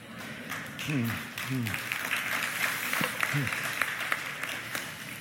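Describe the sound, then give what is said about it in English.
A church audience at North Coast Calvary Chapel applauds steadily, a dense wash of many hands clapping throughout, with a few brief voiced calls or cheers rising out of it partway through. “If you're a visitor here and you're thinking, why are they applauding?”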